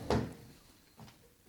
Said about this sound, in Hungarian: Hogyan? Most másra fogom használni a három széket, hogy akkor össze is keverem őket